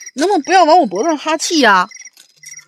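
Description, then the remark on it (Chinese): A cricket-chirp alarm ringtone, an alarm clock set as a reminder to eat breakfast, repeats in short, high, thin bursts beneath a woman's animated speech, continuing faintly on its own once she stops talking. “这怎么后面还有蛐蛐叫呢？”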